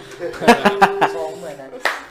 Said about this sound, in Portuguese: Muito bem. Querem bater palmas?